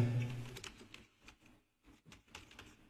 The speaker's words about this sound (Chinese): 你在打字吗？你在 Q 里骂我吗？